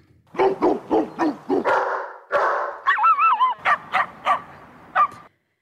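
A series of loud dog barks in quick succession, with a couple of overlapping yelps and a whiny, warbling bark in the middle, no talking.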